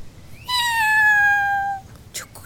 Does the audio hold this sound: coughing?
no